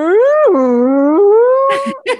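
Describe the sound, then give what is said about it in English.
A voice imitates a whale call: one long, loud, wavering moan that dips and then rises in pitch for about two seconds, ending with a couple of short breathy bursts. “When I went under the water to like be snorkeling, you could hear the whales calling.”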